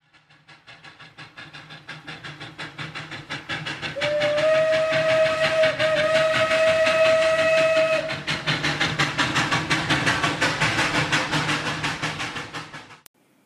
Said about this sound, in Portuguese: Agora nós ouvimos o som de um trem eu acho que foi difícil, hein?